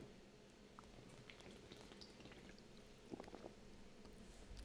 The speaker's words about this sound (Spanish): Ese traguito va por ustedes. Este traguito va por el co-host.